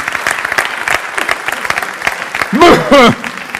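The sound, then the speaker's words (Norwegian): A crowd applauds for Jesus at a Christian gathering, with dense, rapid clapping throughout, building briefly near the end where a couple of loud, tonal voiced cheers or shouts rise above the steady patter of hands. “Ja, det kan du gi en klapp for.”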